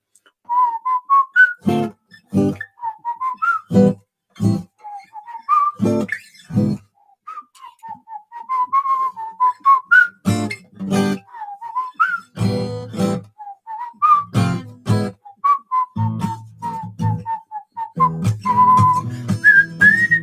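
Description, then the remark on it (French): A person whistles a wavering melody for about twenty seconds, punctuated by repeated sharp percussive knocks, with no talking. “On va essayer de faire un sifflant.”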